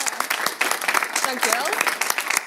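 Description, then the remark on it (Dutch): Dense, steady applause from an audience for the past year's work at Toverland, a broad crackle of many hands clapping at once, with a few voices rising briefly through the middle. “Allemaal klappen voor wat ze in Toverland hebben gedaan afgelopen jaar.”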